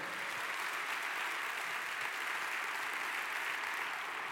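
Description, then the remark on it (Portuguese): An audience breaks into sustained, dense applause for the Lord, a steady wash of many hands clapping at once that holds an even, strong level for several seconds without pause. “Quem mais dá um forte aplauso ao Senhor?”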